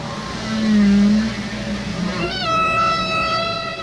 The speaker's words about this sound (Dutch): walvisgezangen